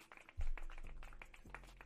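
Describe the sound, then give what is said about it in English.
A brief clapping sound effect, many hands clapping in a dense, uneven patter, fairly quiet and over a low steady hum, with no one talking. “Clap it up for that. Where's my clap?”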